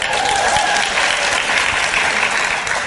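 A live audience breaks into steady, sustained applause at a draft pick of Kamala Harris, dense clapping from many hands at a consistent loudness throughout, with no voices standing out.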